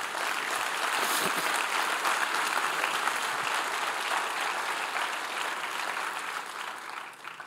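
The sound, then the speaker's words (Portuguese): An audience applauds steadily for several seconds, a dense, even wash of clapping that stays loud throughout and tapers slightly at the end. “Isso, aplauda Jesus por isso.”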